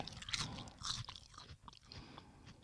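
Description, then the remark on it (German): Crisp crunching of a dry, brittle crispy seaweed snack, several quick bites and chews in a row, with sharp high-pitched crackles over low mouth sounds and no talking. “Wenn du es knusperst und runterschluckst, geht es”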